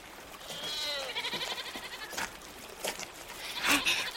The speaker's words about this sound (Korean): 엄마, 염소야! 그러네. 진짜 흑염소가 두 마리나 있네.